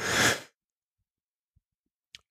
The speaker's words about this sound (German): Und jetzt habe ich das mit dem Niesen auch erledigt.